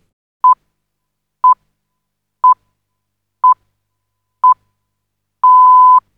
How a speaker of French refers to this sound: Ce qu'on entend là, Fanny Gribinski, ça s'appelle le Greenwich euh, Pips, et on l'entend pour la première fois sur les ondes de la BBC en 1924